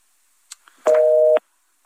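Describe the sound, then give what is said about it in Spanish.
A telephone busy signal after a dropped phone call: a couple of faint clicks, then a loud steady beep lasting about half a second, with the next beep starting as it cuts off. No one speaks. “Ah, ay, los teléfonos.”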